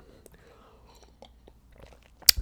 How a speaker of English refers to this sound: Ah, sip of water.